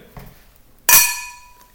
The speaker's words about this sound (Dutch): Zullen we voor poging 2 gaan? Klinken.